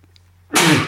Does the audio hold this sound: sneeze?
yes